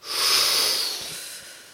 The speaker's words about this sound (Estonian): Äh, mis me teeme, on paar asja samal ajal. esiteks, me hingame väga sügavalt sisse suu kaudu.